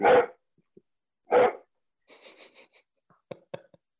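A dog lets out two loud, sharp barks about a second and a half apart, followed by quieter scratchy rustling and a few faint clicks.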